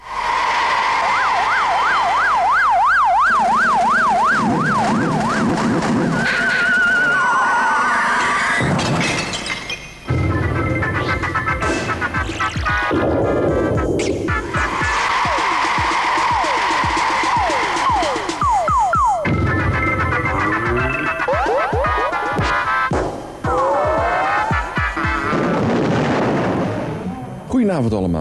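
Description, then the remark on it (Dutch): The theme tune of a children's TV programme of cartoons and comics items presented by Han Pekel: loud and busy, packed with cartoonish effects, warbling siren-like wails, sliding whistles and punchy hits, playing continuously for the whole stretch. “Laten we even luisteren hoe de tune klonk.”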